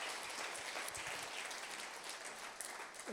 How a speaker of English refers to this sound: Guys, give them a round of applause. Gospel goers. Thank you.